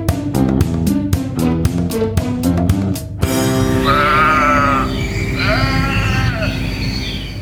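A short music jingle: about three seconds of punchy, evenly spaced staccato chords, then a sustained, loud passage with warbling, bleat-like wavering notes on top. No one speaks.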